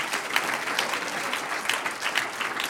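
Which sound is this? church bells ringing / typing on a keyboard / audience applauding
audience applauding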